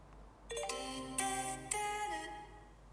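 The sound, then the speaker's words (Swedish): An electronic chime from an information screen at a small train station rings out: a short run of bright, sustained tones stepping in sequence, with sharp accents, lingering over a quiet low hum. “Så kan du sitta på en liten tågstation och vänta. Och från ett hörn, en skärm du inte ens har sett, för att de har flera olika överallt, så hör du bara i det tysta.”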